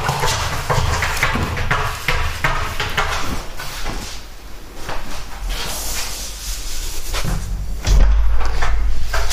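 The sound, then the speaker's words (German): A cupboard door is opened and shut several times in quick succession, producing clattering wooden knocks and thuds over a steady background hiss, with no one talking. “Jetzt lass doch mal die dumme Tür auf.”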